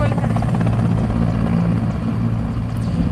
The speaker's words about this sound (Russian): Давайте посмотрим видео вот, собственно, вертолет заходит на посадку.